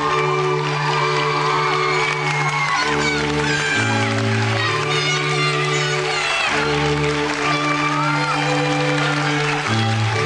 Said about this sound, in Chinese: 谢谢各位的掌声。